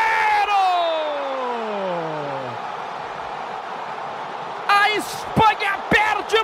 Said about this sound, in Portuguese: mais um pênalti! A torcida incendeia o estádio da educação.